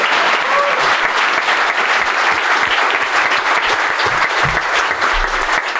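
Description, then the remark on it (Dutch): A large audience claps loudly and steadily for several seconds, a dense, continuous wash of applause with no voices standing out, as performer Mark Wouwmans is called on stage. “Mag ik een keihard applaus voor de enige echte Mark Wouwmans!”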